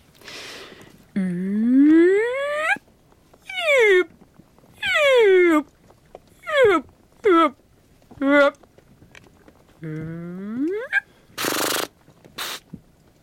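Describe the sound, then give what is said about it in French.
A person imitates humpback whale song with a series of about eight rising and falling moans and whoops, ending with two short breathy noise bursts. “j'ai pas les chants de baleine sur moi, mais je peux vous, faire une petite imitation si vous voulez entre nous.”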